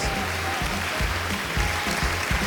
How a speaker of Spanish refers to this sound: En total, 164 programas. Nada más ni nada menos. ¿Eh? aplauso ahí. Gracias.